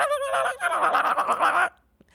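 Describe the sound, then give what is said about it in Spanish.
A voice imitates a cassette tape rewinding a song: a rapid, high-pitched, warbling gabble lasting under two seconds, fairly loud, then cutting off abruptly with a faint click after. “pero en aquel tiempo teníamos que ponerle eh, rewind y se escuchaba...”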